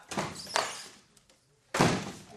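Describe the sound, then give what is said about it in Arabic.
A door is opened to check whether someone is inside: a quick thump and rattle at the start, a brief quiet stretch with faint creaks, then another firm knock-like thud of the door near the end. “قلت الحياة باش كذبني وتحل الباب باش تثبت هي هوني ولا ليه؟”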